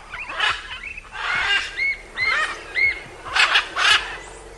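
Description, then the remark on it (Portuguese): Blue-and-yellow macaws squawking: a run of harsh, raspy calls repeated in quick succession, fairly loud, with no one talking. “A cada trajeto, a natureza nos recompensava com lindas paisagens, cachoeiras e árvores imponentes e ameaçadas, como as castanheiras, cujas folhas servem de abrigo para aves como arara canindé, muito comum por lá.”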